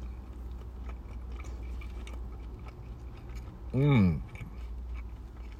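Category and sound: food or drink, chewing a sandwich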